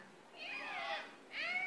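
A voice imitates a cat meowing: two high, wavering meow calls, the first long and drawn out, the second shorter and rising, both fairly loud with no other talk.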